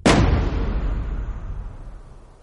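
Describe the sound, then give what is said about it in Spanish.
A single heavy slam of a basement door shutting, a sharp booming impact with a deep low rumble that lingers and slowly fades over a couple of seconds. No voices. “La puerta del sótano se cierra.”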